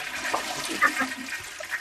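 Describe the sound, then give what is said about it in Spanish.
A toilet is flushed by a father, a rushing, gurgling wash of water with a broad hiss that stays fairly steady throughout, with no voices over it. “Acaba de tirar de la cisterna.”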